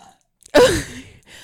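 A single short burp, close and fairly loud, with a rough voiced tone that drops in pitch before trailing off into quiet. No one talks.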